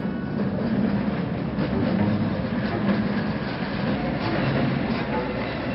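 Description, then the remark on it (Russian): A tram rumbles steadily along an empty street with a continuous low, rattling roar and faint clatter of wheels on rails, unbroken, with no voices. “По пустой улице идет трамвай.”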